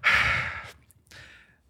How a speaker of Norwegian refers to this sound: Jeg kan og gjespe.